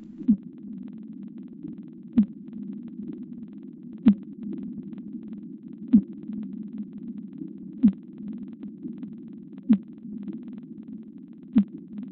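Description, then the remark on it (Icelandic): Whale calls in the ocean: a low, steady moaning drone, somewhat like a foghorn, runs throughout while eight sharp clicks land at even intervals, roughly every two seconds. No voices. “Þeir gefa frá sér smelli, remja, emja og stinja og hljóma svolítið eins og þokulúður og geta köllin þeirra ferðast mörg þúsund mílur í hafinu.”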